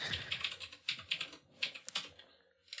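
Rapid clicking of computer keys, a steady run of close, crisp keystrokes with brief pauses, ending in a few scattered taps; no one talks.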